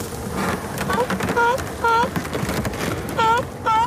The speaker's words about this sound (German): Der weiße Nebelschleier hat bislang noch verborgen, was sich jetzt vor ihnen abspielt. Keine hundert Meter entfernt brechen riesige Wellen am Eis. Tonnenschwere Körper reißen es auf und tauchen darin unter. Wale